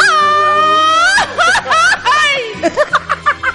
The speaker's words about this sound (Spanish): ¿Cómo es el grito? ¡Ay! ¡De mariachi!